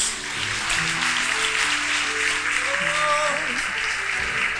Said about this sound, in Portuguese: Vamos aplaudir nosso Deus.